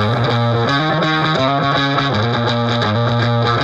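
A loud rock song plays with heavily distorted guitar chords shifting in a steady rhythm, dense and sustained throughout, with no voices.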